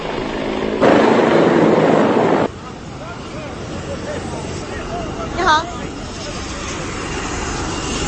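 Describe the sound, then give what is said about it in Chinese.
A Chinese-made Z-10 military attack helicopter roars overhead during a solo flying performance display, in a steady, broad rush of engine and rotor noise, with a louder burst of noise early on before it settles into a continuous drone. “那么现在出现在表演区的呢是国产武装直升机当中的响当当的这个明星啊，直十武装直升机。”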